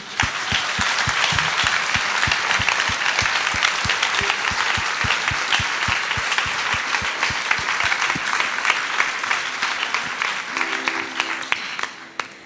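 An audience in Munich applauds steadily for about twelve seconds, a dense wash of clapping with some sharper individual claps standing out, before it tapers off at the end.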